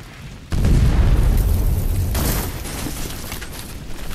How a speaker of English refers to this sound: The explosions are getting closer, and the sound is enough to get her moving.